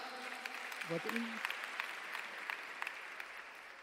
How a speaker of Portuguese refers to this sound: palmas para o nosso voluntário.